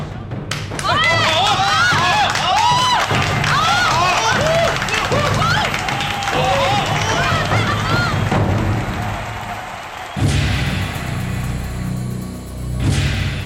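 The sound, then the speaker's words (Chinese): A crowd claps warmly and steadily for about ten seconds, with excited cheering voices rising over the dense patter, before the noise drops and changes character near the end. The audience is applauding the people on a stage. “台上这些借势造帮传人，请大家给予热烈掌声。”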